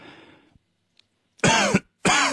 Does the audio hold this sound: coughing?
yes